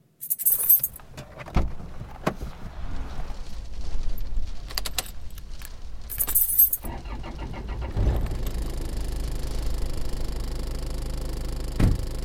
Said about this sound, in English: me playing sounds in the studio, you imagining the space of a car.